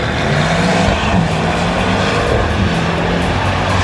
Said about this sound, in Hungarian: Ú, ezt nem akarom elhinni, hogy ez a, a safety car vagy a medical car közül valamelyik. A kettő együtt.